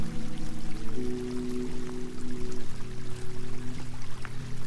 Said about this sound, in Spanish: Miré los riachuelos de agua que bajan de las montañas formando pequeños arroyos donde las aguas saltan, corren, formando pequeñas cascadas.